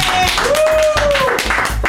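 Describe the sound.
A burst of clapping from a small group in San Michele, dense and steady for a couple of seconds, with voices chattering and a brief high whoop riding over it.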